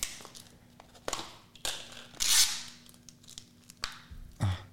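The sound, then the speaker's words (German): Crisp crinkling and a drawn-out tearing rasp of thin plastic film being peeled off a food container, with several sharp crackles and a soft thump near the end; no talking. “Okay, da war noch eine Folie drüber.”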